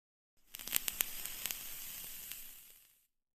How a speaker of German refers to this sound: Was war denn das? Das war das Ziehen an einem Verdampfer.